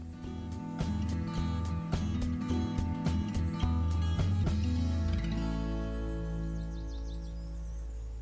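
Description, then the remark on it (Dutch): A woodpecker taps on wood in irregular bursts of sharp knocks over a low steady hum, then falls silent while faint high chirps drift in near the end. “Het getik is een specht, dus geen bever.”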